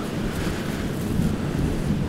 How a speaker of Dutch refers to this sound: Ja, populieren vangen gewoon heel veel wind omdat die zo hoog zijn. Zoals je ziet zijn populieren ook extreem flexibel. Die bewegen, die gaan veel harder mee met de wind dan eik en beuk en zo.